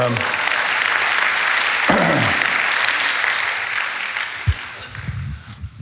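A church audience breaks into sustained applause to praise God, a dense crackle of many hands clapping at once that gradually thins and fades out, with a few louder thumps near the end.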